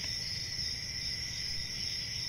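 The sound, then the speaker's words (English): A steady chorus of crickets chirping, a continuous high-pitched trill at an even level with no voices, like a quiet night-time field. “It's nothing there. It's it's like crickets.”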